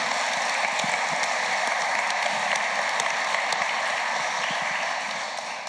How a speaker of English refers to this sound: It's amazing. And what a, yeah, that deserves a round of applause, doesn't it?